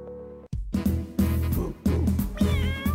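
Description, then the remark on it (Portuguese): A cat meows several times in quick succession, loud, over a steady musical backing, with a higher, wavering meow near the end, in the opening jingle of the radio show Pet Papo Animal. “Au, au, Miau, miau, está no ar, pet papo animal.”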